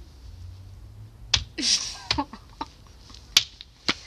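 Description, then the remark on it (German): A handful of scattered claps from a tiny audience of invited guests, sparse and uneven rather than a full round of applause, with a brief laugh mixed in among the sharp hand-claps. “Applaus mal, das Publikum.”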